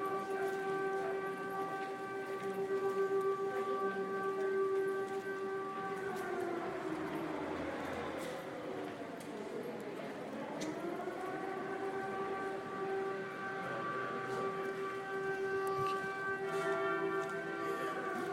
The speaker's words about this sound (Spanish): Todos los miércoles a las 12 del día en París suena esta sirena.